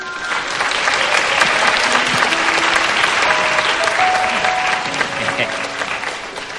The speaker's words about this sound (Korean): 그러니까 우리 큰딸한테 크게 박수 좀 한번 쳐주세요.